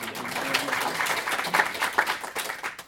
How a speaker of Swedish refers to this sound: Kan också få en applåd.